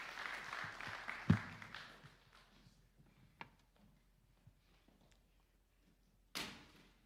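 An audience applauds at the start, a dense wash of clapping with one sharp loud thump, then it dies away within a couple of seconds, leaving scattered knocks and a sudden bang near the end.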